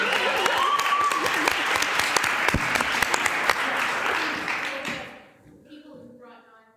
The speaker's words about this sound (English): a round of applause for the board members attending.